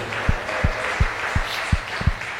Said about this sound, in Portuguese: Aplauda, Jesus.